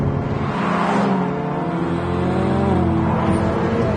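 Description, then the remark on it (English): A Ferrari F8 Tributo's V8 engine roars loudly and steadily as the car accelerates, its pitch climbing through the revs, with no talking. “It's so good. I love this F8. It's basically the same as the Pista, and I love that.”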